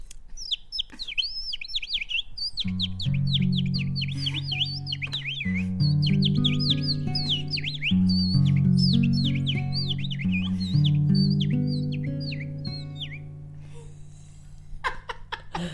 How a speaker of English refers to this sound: Can we have some more bird sounds, actually?